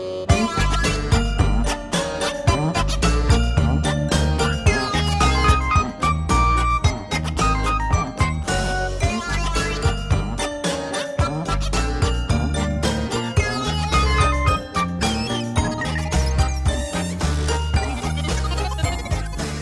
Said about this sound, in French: On vous retrouve dans une petite demi-heure symbolisée par la musique que nous allons écouter.